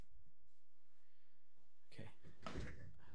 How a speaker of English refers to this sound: Can I open the door? No. Okay. Well, you can crack it.